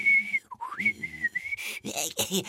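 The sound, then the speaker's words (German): A person practices whistling an imitation of blackbird song: a long steady tone that dips and swoops back, then a few quick, breathy warbling notes. “Ich übe. Amselig.”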